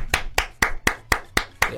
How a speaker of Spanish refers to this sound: Estás ahí, eh, Netflix, Netflix, sigues ahí y de repente se escuchan aplausos.